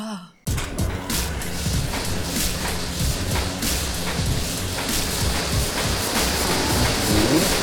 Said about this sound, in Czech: Znělka!